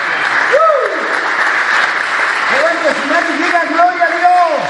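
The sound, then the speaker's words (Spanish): A crowd applauds steadily for several seconds, a dense continuous wash of clapping, with voices calling out and cheering over it. “Lo voy a volver a repetir para que le demos un aplauso.”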